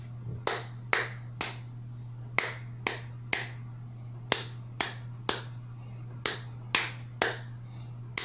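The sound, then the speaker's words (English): A single person claps out the rhythm of a Bible verse for listeners to recognise: about fifteen sharp, crisp claps in short uneven groups, like tapping out the syllables of a phrase, over a steady low hum with no talking. “So I'm going to clap and tell me if you remember this verse.”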